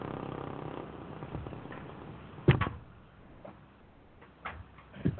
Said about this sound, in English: you got something running in the background? I got something running. Yeah, it sounds like a, a fan, fan, or, or, or motor. fan. Fan, let me move it.